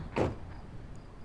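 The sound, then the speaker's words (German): A car door shuts once with a short, muffled thud, followed by a quiet, steady background hush. “Eine Autotür.”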